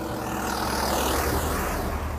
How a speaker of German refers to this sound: Ja, ich bin, ich bin in, am Bodensee, auch hier gibt es Autos.